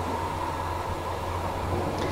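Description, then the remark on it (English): A steady, low rumble of a passenger train ride heard from inside the carriage, with a constant droning hum and faint rattling, continuous and even throughout, with no voices. “Does this feel like the trains from Eastern Europe?”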